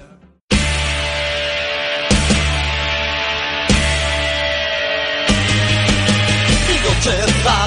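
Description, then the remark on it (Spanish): A song starts abruptly after a brief quiet moment and plays loud and full, with steady bass-heavy chords that change every second or two. It sounds like an instrumental intro, with no voices yet. “Pues ahí está, entonces este, escuchamos la rola y nos estamos escuchando para dentro de 15 días, escucho.”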